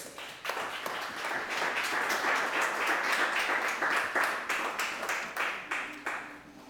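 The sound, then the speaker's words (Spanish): A crowd bursts into sustained applause for the Lord, many hands clapping together in a dense, steady wash that holds for several seconds with a few sharper claps standing out. “Dale un aplauso al que vive.”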